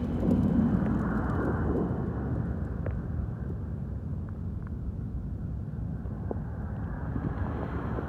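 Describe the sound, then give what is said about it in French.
Gentle lapping of underground water, a steady low, murmuring wash with a few faint soft splashes and ticks scattered through it, no voices. “J'entends leur doux clapotis.”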